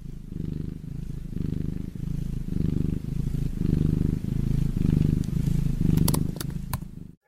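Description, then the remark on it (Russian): A cat purrs steadily, a low rumbling drone pulsing in a regular rhythm of breaths for about five seconds, with a few faint clicks near the end. “Тут должна быть часть, где я благодарю за подписки, поддержку, но я уже так задолбался это каждый раз формулировать по-новому, что лучше включу вам на 5 секунд звук морчащего котика, пользы будет больше.”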